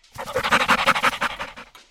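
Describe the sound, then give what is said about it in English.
A dog pants rapidly and eagerly, a steady run of quick, breathy huffs that fades slightly toward the end, with no voices. “It's kind of like your dog when it's trapped in the car on the way to the doggy park.”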